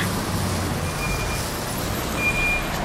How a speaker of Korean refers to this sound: 151번 버스가 도착하였습니다.